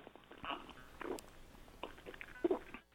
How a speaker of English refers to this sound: Let me just take a sip of water here.